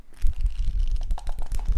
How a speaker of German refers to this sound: Ah, das Geräusch von Papier.